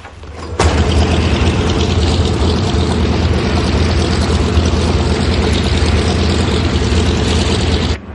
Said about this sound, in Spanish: El avión despega. Alberto lo ve alejarse.